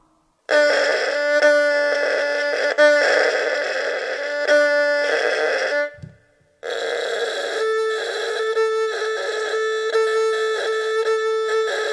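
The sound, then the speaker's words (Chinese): An erhu is bowed to demonstrate a harsh, dry ('zao') tone, an example of poor tone quality: two loud sustained phrases of held notes separated by a short break, bright and edgy throughout, with no voices. “请听声音发燥。”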